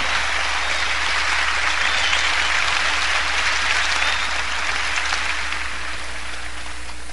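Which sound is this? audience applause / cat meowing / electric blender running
audience applause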